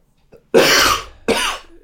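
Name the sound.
cough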